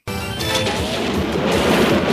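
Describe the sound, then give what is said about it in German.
A loud, dense burst of cartoonish crashing and booming effects from a cartoon-themed alarm clock rushes in abruptly and keeps going, busy and chaotic like an action sequence, with no talking. “Und da habe ich auch was vorbereitet und zwar mein neuer Wecker, der mich völlig motiviert dann in den Tag hineinführt.”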